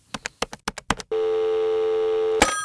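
About eight quick key clicks from a phone being dialed to call a man back, followed by a loud, steady telephone dial tone that holds for over a second before cutting off with a short burst. No voices.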